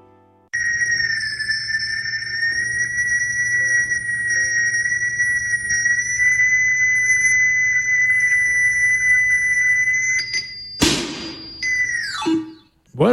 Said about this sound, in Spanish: bueno, pues ese sonido que habéis escuchado, no se ha estropeado la radio, ¿eh? Ese sonido que habéis escuchado es, entre comillas, el punto de mira por el que se orientan los tiradores de precisión ciegos, ¿eh? Sí, sí, ciegos, ¿eh?